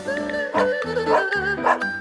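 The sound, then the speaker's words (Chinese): A dog pulling a plough in a field barks three times at an even pace, each bark a bright, tonal yelp over a lingering, whiny background, with no people talking. “说也奇怪，这只狗好像有灵性似的，一听到弟弟这么说，就开始拉着犁在田里耕作了起来。”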